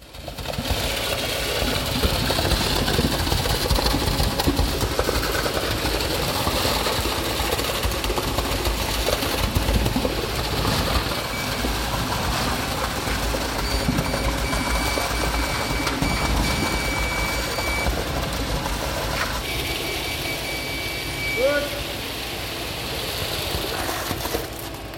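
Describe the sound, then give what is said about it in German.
A concrete pump engine runs steadily, pumping earth-moist concrete onto the construction ground for a foundation slab at the Funktechnikmuseum, 44 cubic meters of concrete; a loud, continuous mechanical drone with a rough, rattling texture and faint high whining tones, holding an even level throughout with no voices. “Mithilfe einer Betonpumpe wurde der erdfeuchte Beton zum Baustellengrund befördert und hier gleichmäßig verteilt.”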